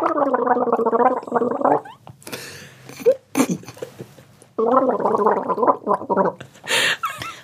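Someone gargles in two long bubbly bursts, the voice humming and warbling through the water, with sputtering and splashy noises in the pause between them and a short hiss at the end.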